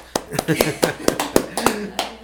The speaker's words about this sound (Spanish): Aplausos.